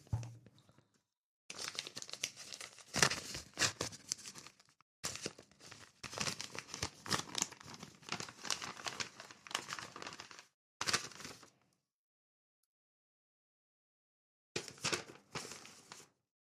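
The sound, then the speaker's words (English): Paper crinkling and tearing as a mailed package from a PO box is opened, in several loud bursts of rustling and crunching separated by short pauses, with a final flurry after a longer silence. “I opened up the PO box this week, and there was like another five of them in there.”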